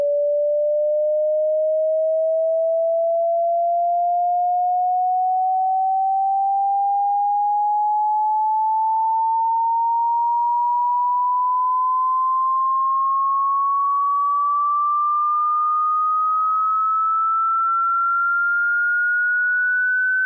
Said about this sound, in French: Avant ça, je vais vous faire écouter un exemple par le son d'une montée progressive de fréquence sonore.